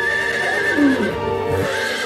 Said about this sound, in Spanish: Y yo voy a llegar hasta allá en mi caballo.